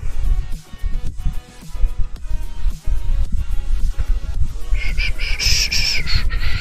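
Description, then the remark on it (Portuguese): A chicken sound effect played on a Twitch live stream: dense, rapid low clucks that continue throughout and stay loud, with a higher-pitched squawk rising over them near the end. No one speaks. “Não sei por que não chegou a galinha no, na, na Twitch, cara.”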